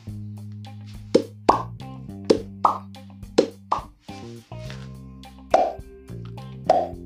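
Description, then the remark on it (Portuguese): A voice imitates, with the mouth, opening a corked bottle, pouring and a water drop: a series of hollow mouth pops, about eight sharp plops in an uneven rhythm over a faint sustained tone, clear. “Vou abrir, abrir uma, uma garrafa que tem uma rolha. Vou servir. O copo d'água vai cair a gotinha e aí já faço vários sons.”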